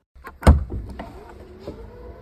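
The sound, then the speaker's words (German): A car's large boot tailgate opens: a sharp latch clunk, then a steady mechanical whir and soft rattling as the hatch lifts. No one speaks. “Genau, genau, deshalb gucken wir uns den Kofferraum an. Wir machen also die große Klappe auf.”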